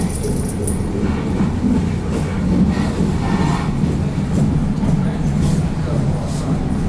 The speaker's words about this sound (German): Gut, wir fahren jetzt U-Bahn. Ja. Verkehrsmittel Nummer drei.